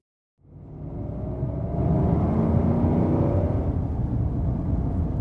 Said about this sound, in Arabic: يجب أن نجد مكانا نوقف فيه السيارة قبل أن تزداد الثلوج قوة أنا لم أقد سيارة على طريق تغطيه الثلوج من قبل